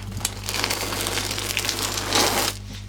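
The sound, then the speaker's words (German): Foley of a car tire on a dirty road, from rolling to stopping: a gritty, crunching roll over dirt and small stones, steady, swelling briefly before the grinding cuts off near the end as it comes to a stop. “du halt den Reifen richtig groß im Bild hast, dass wir so einen Autoreifen auf dreckiger Straße addieren.”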